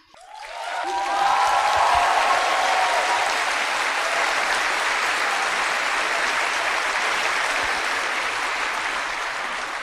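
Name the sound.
audience applause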